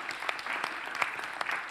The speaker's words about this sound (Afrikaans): Kom ons gee vir haar 'n hande klap.